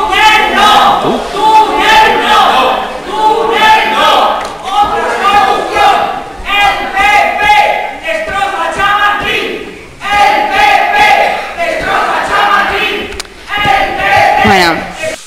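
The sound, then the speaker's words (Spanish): A large crowd of protesters near the Bernabéu stadium in Madrid's Chamartín district chants slogans such as "túnel no" in unison, loud, with rhythmic phrases repeating in waves and only brief dips between them. “porque se oyen cánticos de túnel no y ahora se oían, que no, yo es que tampoco había oído este debate, el PP destroza Chamartín.”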